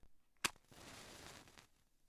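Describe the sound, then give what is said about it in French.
A match is struck with a single sharp scrape and snap, followed by about a second of soft, rushing hiss as it flares and burns, with no talking. “Une allumette.”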